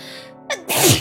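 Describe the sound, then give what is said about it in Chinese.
A single loud sneeze: a brief breathy intake, a short pause, then a sharp, explosive burst that trails off quickly. No talking. “等一下我要打喷嚏了，我要打喷嚏了，”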